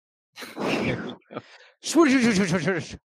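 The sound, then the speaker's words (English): A voice mimics a toilet flushing: a breathy, rushing whoosh, a short catch, then a warbling, gurgling vocal swirl that drains away, with no other sounds around it. “That's the sound of me flushing ten dollars down the drain.”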